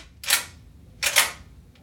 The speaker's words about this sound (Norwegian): Noen henter hagla ned fra hemsen og lader den.